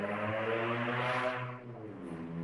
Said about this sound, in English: that was a loud car.